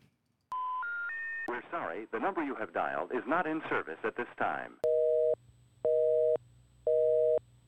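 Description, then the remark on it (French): Three rising telephone tones open a voicemail playback, then a muffled, phone-filtered voice speaks briefly, followed by three loud, evenly spaced busy-signal beeps on the line. “on va écouter la boîte vocale.”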